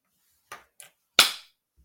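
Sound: single hand clap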